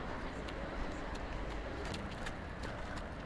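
Steady low rumble of street traffic beside the Luxembourg Garden, with cars going by, a continuous wash of road noise with faint high chirps of small birds scattered over it.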